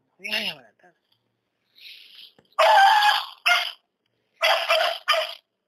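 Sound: dog barking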